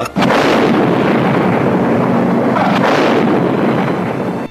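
sound effect, bomb explosion

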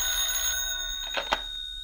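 household object, office telephone ringing

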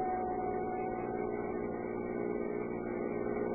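vehicle, car engine running

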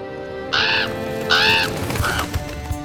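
bird, raven cawing

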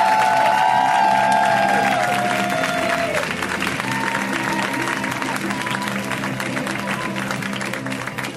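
crowd, audience applause and cheering

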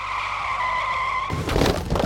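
sound effect, car tires skidding

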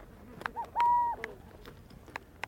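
bird, burrowing owl call

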